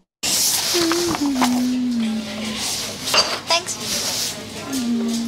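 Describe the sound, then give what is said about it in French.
Busy diner ambience with dishes and cutlery clinking and clattering throughout, sharp metallic clinks over a steady hiss of room noise, with a faint tonal hum and murmured voices in the background. “c'est une fille dans un diner hein, qui feuillette une BD du groupe”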